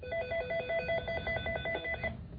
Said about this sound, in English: I have a phone here being a pain in the butt.